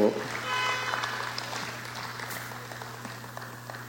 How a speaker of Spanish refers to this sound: Un aplauso fuerte a Saqueo, por favor